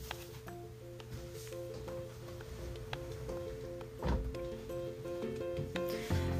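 A room door is closed, shutting with a muffled thud about two-thirds of the way through, followed by a softer knock near the end, over a steady humming background with faint tonal drone and no talking.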